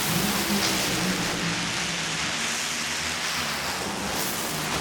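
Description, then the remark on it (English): A loud, unbroken roar of the final pair of funny cars, Matt Hagan and Tim Wilkerson, thundering down a drag strip on a Saturday qualifying run, a dense wall of engine noise holding steady throughout with no voices; Hagan ran 3.975 seconds at 321 mph. “Here is the call and the run in qualifying on Saturday.”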